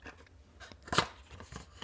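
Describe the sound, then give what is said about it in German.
The cardboard sleeve of an advent calendar door rustles and crinkles in short papery bursts, with one sharper crackle in the middle and a few softer scrapes around it, as it is opened to reveal a small chocolate praline. The handling is fairly quiet and no one speaks. “Ich meine, beim, beim, beim Rascheln habe ich es schon vermutet, aber ähm, die Papp.”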